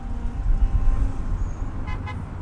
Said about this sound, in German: Zwei Stunden wird die Fahrt dauern. Der Verkehr in der Stadt macht jede Reise zur Geduldsprobe.